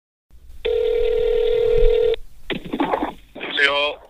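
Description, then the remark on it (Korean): A steady electronic telephone tone holds for about a second and a half, then gives way to short warbling line sounds and a brief voice, all loud, as a Korean radio broadcast connects a phone call to a listener in Ohio. “전화로 연결해서 어떻게 이렇게 연락하게 되셨는지 직접 한번 들어보도록 할까요?”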